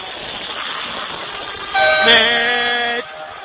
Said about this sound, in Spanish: Cuando va a sonar la bocina del comienzo.